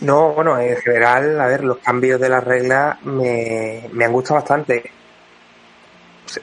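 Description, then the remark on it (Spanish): A man speaks in Spanish with a hollow, echoing quality on his voice; after he stops, a faint smeared tail lingers briefly before near silence and a small click at the end. “Verdad, se escucha con eco, ¿eh?”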